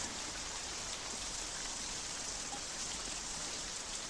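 Steady rain falls continuously, a dense, even hiss of drops pattering on surfaces with no pauses, moderately quiet, with no voices present.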